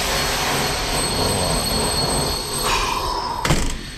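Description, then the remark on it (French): A power drill whirs in a building's common areas against a loud, steady wash of machinery noise, rising into a brief high whine before a sharp burst near the end. No one speaks. “Et la perceuse dans les communs.”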